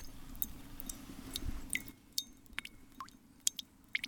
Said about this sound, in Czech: To čvachtá.